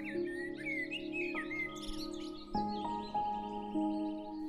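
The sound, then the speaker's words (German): Birds chirp and twitter in quick, light phrases in a summer meadow, most busily at the start, over a steady, soft bed of sustained music with no one speaking. “Du hörst die Vögel zwitschern Insekten summen.”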